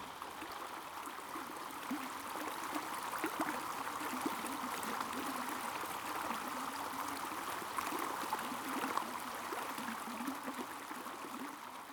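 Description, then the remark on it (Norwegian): A swollen stream in a wood rushes steadily along spruce roots, a dense, continuous wash of flowing water with bright gurgles and splashes, no voices present. “og da tok jeg av meg på beina og satte føttene ned i det oppsvulmede bekkefaret.”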